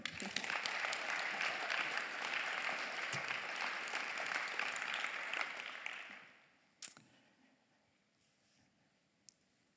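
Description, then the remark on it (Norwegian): A crowd applauds a woman who has just come forward and spoken, steadily for about six seconds, a dense wash of many hands clapping, then it fades quickly into near silence with a couple of isolated claps afterward. “Gi henne en klapp.”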